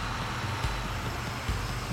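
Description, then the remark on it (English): A bus engine rumbles steadily, a constant low drone with broad road noise and a couple of faint thumps, while riding on a bus heading out along a highway in Moscow. “I get on a bus”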